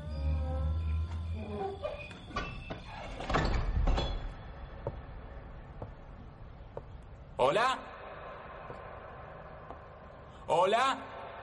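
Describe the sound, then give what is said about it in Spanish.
The heavy door of a huge Gothic-style castle creaks and scrapes open with a rising, drawn-out groan, followed later by a couple of short creaks, with a low rumbling ambience underneath and no voices; thick fog outside. “La puerta está abierta. Entraré de una vez.”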